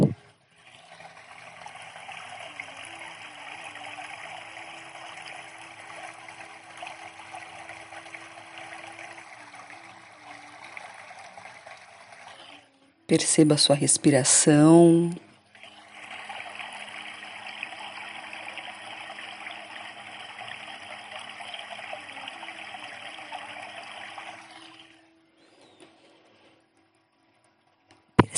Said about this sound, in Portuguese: Neste momento, você está imerso nessa água, você faz parte desse fluir.